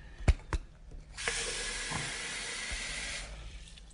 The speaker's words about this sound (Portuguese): eu vou, eu vou abrir a água da pia, hein, gente?